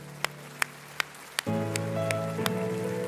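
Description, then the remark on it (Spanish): A church audience gives an applause to the Lord, clapping in a steady, unified rhythm, sharp even beats about three per second, while a sustained keyboard or organ chord swells in halfway through and holds beneath the clapping. “Sin embargo, sí, denle un aplauso al Señor.”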